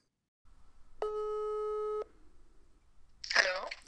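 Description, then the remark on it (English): A single steady electronic telephone ringing tone from an outgoing phone call lasts about a second, loud and clear over a faint low hum, and then a voice briefly begins to speak. “I talked with her on the phone this week, and here is what I asked her about Iyad A.”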